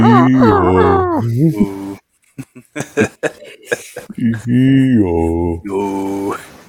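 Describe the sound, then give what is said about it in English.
A voice imitates a foghorn with long, low, droning blasts, one at the start and another after a pause filled with short breathy bursts and chuckling, loud, while signaling with a mirror in a slow arcing motion. “Make sure to throw in some uh, foghorn type sounds when you do it too.”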